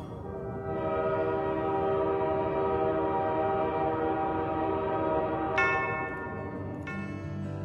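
A train rumbles steadily under a long, sustained horn blast with a rich, chord-like tone, and two brighter horn notes break in near the end. No one speaks.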